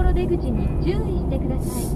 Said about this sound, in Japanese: うるさくてすいませんねちょっとまあ旅の途中なもんで車で運転してるんで